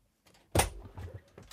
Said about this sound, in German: Da geht die Tür auf. Da geht die magische Tür. auf.